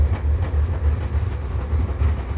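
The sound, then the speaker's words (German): A small park train rolls steadily along its rails on a round trip through a very large park, a continuous low rumble with faint rhythmic clatter from the wheels, heard from on board with no voices. “Aber ich weiß, ihr mögt Fahrgeräusche. Ich lasse das noch einen Moment laufen für euch.”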